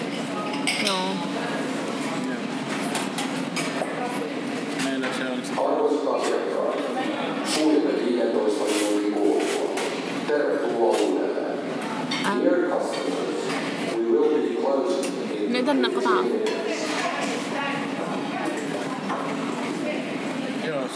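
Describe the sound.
Busy indoor market hall ambience with a steady murmur of many voices, punctuated by frequent light clinks of dishes, glasses and cutlery scattered throughout.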